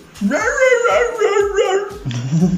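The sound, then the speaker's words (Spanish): A person's voice mimics the cartoon dog Courage from Courage the Cowardly Dog, letting out a loud, wavering, whimpering howl that rises and falls for about two seconds before dropping into a lower whine. “Coraje el perro cobarde, güey.”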